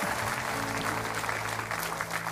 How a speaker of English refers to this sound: Give them a great big clap offering. All right?